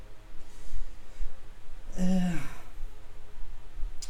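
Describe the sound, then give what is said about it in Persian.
A steady low hum with a soft airy hiss runs throughout, like an electric fan running, and a brief breathy sigh rises over it midway. “یه لحظه تو پرانتز من معذرت خواهی کنم از صدای پنکه به خاطر اینکه بدون پنکه قابل تحمل نیستش گرمای هوا”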